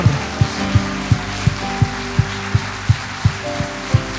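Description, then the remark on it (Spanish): A church audience, on its feet, claps continuously for the Lord, a dense crackling wash of applause layered over a steady, fast, thumping low beat and sustained musical tones, with no voices standing out. “Vamos, póngase en pie y siga aplaudiendo al Señor.”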